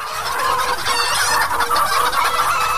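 A crowded flock of chickens clucking nonstop, many overlapping calls blending into a steady, fairly loud chorus with no voices.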